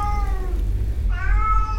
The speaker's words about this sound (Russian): Ко мне пришел кот.